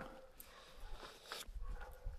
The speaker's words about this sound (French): Ah, il y a tellement personne que dès qu'il y en a un qui sort pour se balader, les chiens ils aboient.